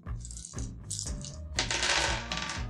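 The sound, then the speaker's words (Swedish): Eight dice clatter and rattle together across a hard surface during a tabletop game, a dense burst of clicking and tumbling that swells, settles briefly, then rolls again, fairly loud. “Då slår du eh, åtta tärningar.”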